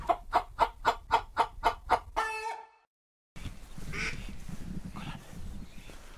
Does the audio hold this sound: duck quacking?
yes